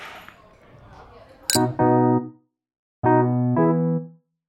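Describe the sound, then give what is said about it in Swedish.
Two glasses clink together twice in a toast, a bright ringing chime each time that hangs and fades, with faint murmuring and rustle before the first clink. “Men vi kan skåla. Ja, skål. skål. Det var en liten kling.”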